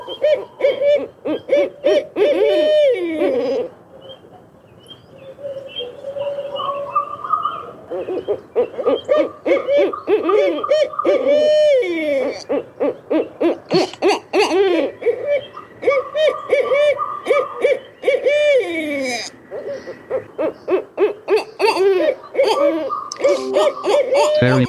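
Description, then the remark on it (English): Several barred owls hoot and caterwaul loudly in the woods, calling back and forth with wild, cackling calls in rapid bursts, wavering, descending hoots overlapping one another continuously. “Barred owls are also known to give a wide variety of non owl like calls and caterwauling, especially when two or more birds gather together.”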